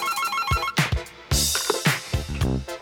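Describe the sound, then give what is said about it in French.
A telephone rings with a bright, electronic, warbling ringtone, clear, followed by a series of punchy percussive thumps. No one speaks. “Et c'est à ce moment-là qu'il va recevoir un coup de téléphone.”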